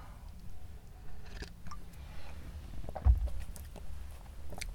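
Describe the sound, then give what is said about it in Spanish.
Someone quietly sips coffee: soft, faint slurping and swallowing noises with light handling sounds, a brief low thump partway through, and no talking. “Pausa para trago café.”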